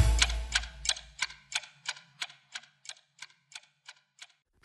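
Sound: clock ticking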